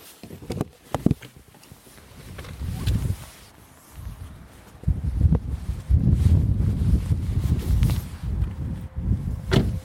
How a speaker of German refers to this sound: Ja, da bin ich wieder, sitze wieder im Auto, draußen regnet es immer noch und es stürmt ein bisschen